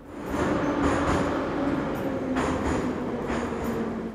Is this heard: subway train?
yes